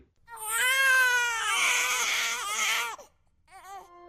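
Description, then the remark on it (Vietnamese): Babies wail loudly in a sustained, rising cry lasting about three seconds, then a brief pause before a softer, quivering whimper starts again. “Chẳng mấy khi thấy các bà mẹ nhìn con khóc nhưng mà mẹ nào mẹ nấy cười tươi hơn hoa.”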